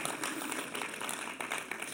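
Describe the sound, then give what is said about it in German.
An audience claps in a dense, steady wash of many overlapping hand claps that continues evenly for about two seconds, fairly loud, with no voices standing out. “Ja, kann gut klatschen.”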